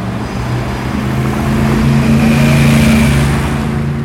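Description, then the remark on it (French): Continuous roar of car traffic on a large avenue, with low engine drone and tonal hums rising and falling as vehicles move past, steady and fairly loud with no voices. “quand même hein, par rapport à, là où on est sur une grande avenue.”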